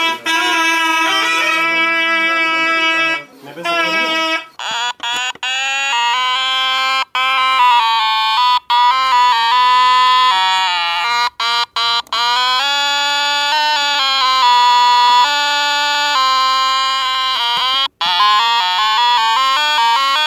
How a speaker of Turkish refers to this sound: Ama çok ilginç bir şekilde bu deformasyon sesi başka bir enstrüman sesine benzetmiş. O da ülkemizin güzel nefesli sazlarından kaba zurna. Evet yanlış duymadınız. Kaba zurna. Şimdi arka arkaya çalayım benzerliği anlayacaksınız.